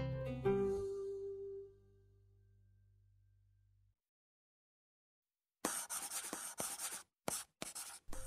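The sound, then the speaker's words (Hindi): A pen scratches across paper in quick, uneven bursts of strokes with short pauses between them as a letter to a grandfather is written, following a fading musical tone and a moment of silence. No one speaks. “दादाजी प्रणाम पता नहीं कितने टाइम बाद आपको ये चिट्ठी लिख रही हूँ”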